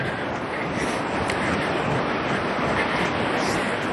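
Gentle, small sea waves wash steadily onto a beach on a very calm sea, too small for surfing, a continuous soft roar of surf with light wind noise and no distinct individual breakers.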